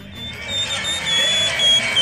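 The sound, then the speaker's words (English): A shrill, sustained human mouth whistle pierces the roar of a large stadium crowd, holding a steady high pitch for well over a second with a slight wavering. “You what just heard live audio of Jeez. the whistle guy, the human embodiment of a saint's whistle.”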